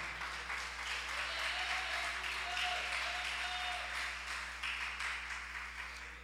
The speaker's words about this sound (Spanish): Dele otro aplauso al Rey de Gloria.